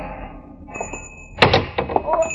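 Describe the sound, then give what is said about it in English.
The door of a small grocery store with a big neon sign over it opens with a solid clunk, followed by a few softer knocks and shuffling movement as people walk inside over a faint steady hum. “And my client, Romano, glanced at it, nodded approvingly, and we walked in.”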